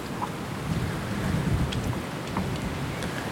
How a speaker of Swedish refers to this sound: Kommer jag lämna er här en stund så får ni lyssna på vinden både i och utanför den här rönnen.